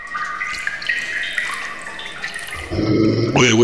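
Water trickles and drips in a reverberant, hollow-sounding space, with ringing tones echoing throughout; the flow grows louder and fuller in the final second. No one speaks.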